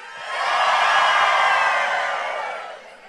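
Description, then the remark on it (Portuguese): An audience bursts into loud shouting and cheering all at once on a count of three, swelling quickly, holding for about two seconds, then fading out, with many voices blending into a bright roar. “Gente, a galera tem que dar um grito, pular, fazer alguma coisa desse tipo.”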